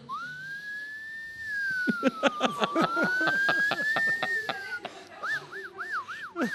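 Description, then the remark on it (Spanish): A voice imitates a distant ambulance siren: a long, thin, slowly rising and falling wail, then a quicker warbling, fading to a soft level as people laugh. “Ambulancia de lejos, dice.”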